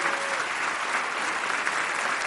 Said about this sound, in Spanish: Y dele un aplauso a Dios con todo su corazón.